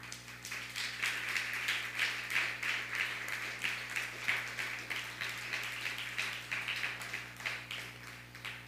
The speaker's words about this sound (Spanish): Un fuerte aplauso a Costa Rica.